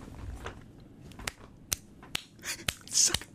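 A series of about six sharp, fleshy slapping claps from firm buttocks smacking together, spaced irregularly roughly half a second apart, crisp against a quiet background with no talking.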